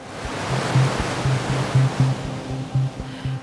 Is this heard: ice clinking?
no